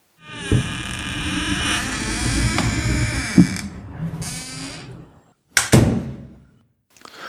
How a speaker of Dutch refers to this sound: En nu trekken wij een flesje open want de podcast is weer klaar.